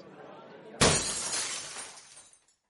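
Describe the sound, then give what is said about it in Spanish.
A thrown glass ashtray smashes against a wall in one sudden, loud crash, breaking into many pieces, the bright spray of shards ringing and tinkling away over a couple of seconds after a quiet, low background. “lanzó un cenicero de cristal que se hizo mil pedazos contra la pared”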